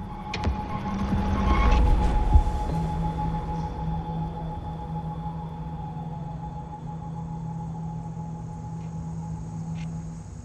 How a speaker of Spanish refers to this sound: Por las noches se ve también una llamarada enorme saliendo de una chimenea de la planta. La llama es tan poderosa que se oye arder desde la distancia.